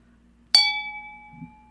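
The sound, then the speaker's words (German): A single clink of wine glasses in a toast over a second glass of wine, a bright ringing tone that hangs and slowly fades over about a second, with no voices. “Prost. Ich bin schon beim zweiten Glas Wein.”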